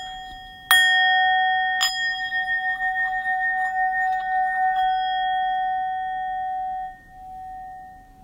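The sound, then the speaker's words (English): A bell is struck twice, about a second apart, each clear metallic strike leaving a bright, sustained ringing tone that slowly fades over several seconds. Nobody speaks. “Um, so I'm gonna do the bell to that.”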